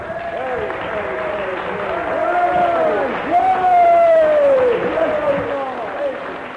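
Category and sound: crowd, audience applause and cheering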